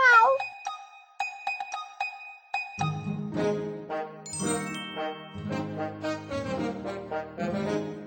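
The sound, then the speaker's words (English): A single short cat meow rings out at the very start, followed by light tinkling chime notes and then a bouncy musical backing that carries on to the end. “Purple cat, purple cat, what do you see?”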